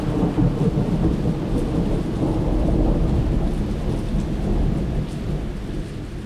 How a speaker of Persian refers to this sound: صدای آسمون قرنبه بود